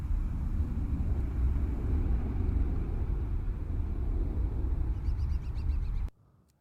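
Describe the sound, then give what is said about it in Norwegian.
Steady ambience of the outdoor video game map Overpass, with a constant low rumble and wind-like wash, faint chirping birds appearing near the end before the sound cuts off abruptly. No one speaks. “Tenk på et map som er ute.”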